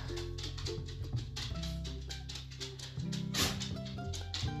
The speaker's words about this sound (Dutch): Met de hond op de achtergrond.